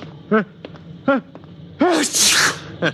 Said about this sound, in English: Uh, no, no, I haven't got a cold. My eyes just water, my nose runs, and I sneeze because I'm essentially a masochist. Actually, it is psychosomatic.